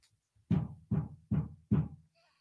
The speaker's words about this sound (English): Bang, bang on the ceiling with a broom handle.